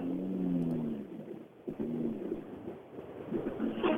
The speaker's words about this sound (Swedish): Och så kommer en ny bil ner, en mörk.